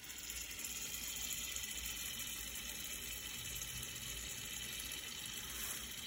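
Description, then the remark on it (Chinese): Taiquan Ranch (台全牧场) sausage sizzles steadily in hot frying oil while breakfast is cooked, a continuous hissing crackle with tiny pops scattered throughout, holding an even loudness for several seconds with no one speaking. “滋滋声， 滋滋声，那个是什么？ 油炸开的声音， 油炸开的声音。”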